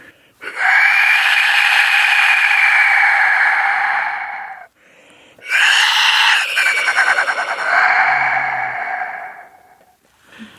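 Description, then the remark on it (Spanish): A clay death whistle, a hollow clay sphere with a small hole and an angled clay tube, blown hard gives two long, loud, harsh screaming shrieks, each lasting several seconds with a short pause between them and no talking. “El silbato de la muerte, bueno, es una esfera interna con un pequeño orificio y luego un tubito de barro que entra de manera angulada y hace que el aire circule por esta esfera, vuelva a salir por el mismo orificio por el que entró”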